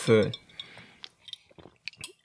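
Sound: glasses clinking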